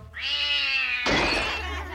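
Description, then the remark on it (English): A single drawn-out cat meow, loud and steady in pitch, lasting about a second before breaking into a harsher, noisier yowl that trails off. No one speaks. “Well, let's find the cat.”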